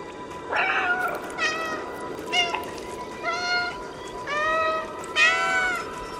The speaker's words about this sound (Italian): Ma il gatto disoccupato che sale sui tetti e non ha altro da fare.